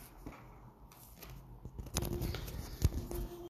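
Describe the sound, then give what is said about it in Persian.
Dry rustling and scraping as a microphone is handled and clipped on, with sharp clicks and a louder thump near the end, without any talking. “میکروفون رو بزنم که صدا بهتر بشه”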